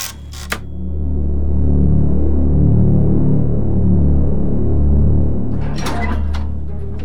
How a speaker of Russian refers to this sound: Створы врат открылись медленно, скрипя ржавыми петлями.